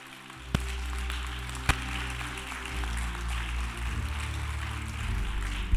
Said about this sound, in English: If you understand that, clap your hands.